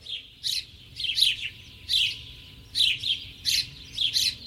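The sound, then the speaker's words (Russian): A house sparrow chirps repeatedly in short, bright bursts, about eight calls in a loose irregular rhythm, clear over a low background hum. “Зимой воробьи живут шумными стайками, весной веселые стаи разбиваются на пары и ищут свое собственное место для воспитания потомства.”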